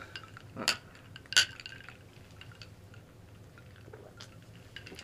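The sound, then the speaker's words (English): Two bright, ringing clinks of glasses touching in a toast, the glasses holding a layered pink fruity drink topped with ginger ale, followed by quiet ambience with a few faint small clicks and taps. “So, cheers, cheers, everyone. cheers. let's give it a go.”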